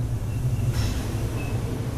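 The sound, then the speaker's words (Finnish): A train rumbles on the rails with a deep, steady low-end drone, and a brief brighter screech of wheels or brakes rises midway as it slows to a stop in the middle of a forest. “Juna pysähtyy keskelle metsää.”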